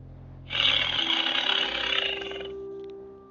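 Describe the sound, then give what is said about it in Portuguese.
A loud, raspy tiger roar bursts out, holding for about two seconds before fading out, with no one speaking. “Você correndo pelo campo com a espada em punho e o tigre correndo ao seu lado.”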